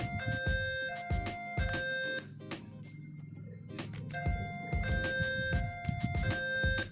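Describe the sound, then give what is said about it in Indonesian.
A toy fire truck siren plays electronic, stepped tones that repeat in a loud, tinny pattern, with a brief dip in the middle before the siren resumes. “coba kalau bunyi ini bunyi motor bunyi mobil firefighter”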